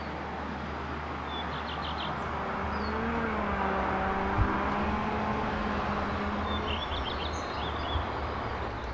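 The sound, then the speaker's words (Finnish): Steady traffic rumble from cars and engines fills an industrial soundscape in Rovaniemi in 2022, with a vehicle's engine tone rising and falling as it passes, while small birds chirp faintly in the background. “Tämäkin muuttuu, kun moottorit ja autot muuttuu.”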